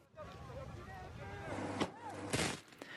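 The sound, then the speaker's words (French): Two sharp blasts from firework mortars and dispersal grenades ring out a moment apart during clashes between protesters and police, followed by a fainter pop, over a steady din of shouting crowd voices and a low rumbling background. “Des mortiers d'artifice et des cocktails Molotov sont lancés par les opposants sur les forces de l'ordre, qui ripostent avec des gaz lacrymogènes et des canons à eau.”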